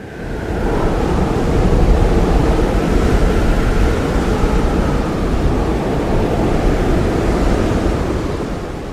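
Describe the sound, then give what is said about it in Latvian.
A powerful storm wind roars steadily for the whole stretch, a loud, dense rush heavy in low rumble with a faint whistling tone above it and no voices. “Jā, ļoti, ļoti liels vējš. Vētra, es pat teiktu.”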